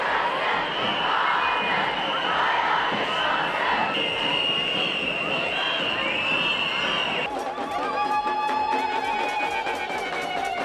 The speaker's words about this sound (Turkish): Pek çok kadın şiddete hayır demek için yürüdü. Ellerindeki pankartlarda şiddet istemediklerini haykırdılar. İstanbul'un simge caddelerinden İstiklal Caddesi'nde kadınların düdük ve slogan sesleri yankılandı.